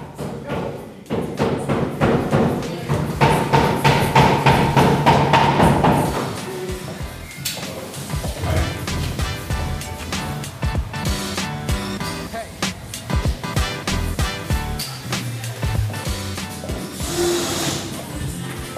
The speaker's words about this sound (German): Aber jetzt hören wir doch erstmal rein in die Baustelle.